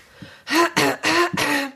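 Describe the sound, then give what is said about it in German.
A man clears his throat in a quick series of four rough, raspy bursts, fairly loud, with no talking. “Er räusperte sich noch einmal und schien sich gesammelt zu haben.”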